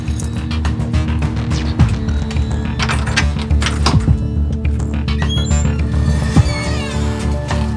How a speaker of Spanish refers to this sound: Oslo saca las llaves de la sala y abre la puerta.